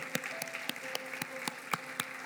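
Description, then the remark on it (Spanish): Congregation applause as people come forward: a crowd clapping together in a steady, rhythmic beat, about four claps per second, over a dense wash of scattered clapping with a faint sustained tone underneath. “Mientras siguen pasando, siga aplaudiendo.”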